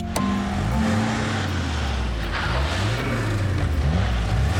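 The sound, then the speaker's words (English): A car engine revs loudly and steadily, its pitch rising and falling, over a constant rushing roar as the front wheels spin in place like a burnout at the curb of a busy main road, white smoke billowing from the front tyres while the car does not budge. “The front wheels spin like the car's doing a burnout, and white smoke bellows out from the front tyres.”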